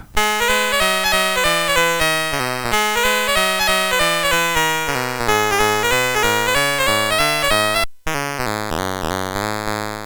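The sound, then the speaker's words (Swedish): Bright, buzzy 8-bit theme music from the video game Metrocross plays loud, bouncing bass notes under a bleepy melody, with a brief cut in the sound near the end before it resumes. “Jag fick till exempel en önskan om musiken till Metrocross men eh, jag antar att eh, personen i fråga kanske inte hade någon riktig koll på hur Metrocross-musiken låter.”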